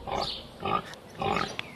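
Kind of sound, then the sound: animal, pigs grunting and oinking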